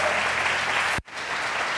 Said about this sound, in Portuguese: Quem tomou posse, dá um aplauso a Jesus aí.